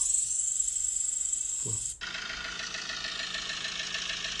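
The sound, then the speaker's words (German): A steady, high hiss gives way halfway through to the continuous, even rumble of an engine idling, fairly loud, with no voices. “Mach mal Motor.”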